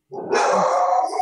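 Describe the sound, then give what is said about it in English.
A dog named Tootsie lets out a single sustained, loud bark that stretches into a drawn-out yelp, with no speech. “that's my dog. That's my dog, uh, my dog Tootsie.”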